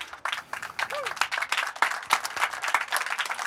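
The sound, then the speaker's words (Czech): An audience at the Olympic festival in Prague's Stromovka park, during a Radiožurnál Olympic special, applauds with a dense, continuous patter of many hands clapping. It is fairly loud and steady throughout, with a few sharper individual claps and faint crowd voices mixed in. “To si taky určitě zaslouží potlesk”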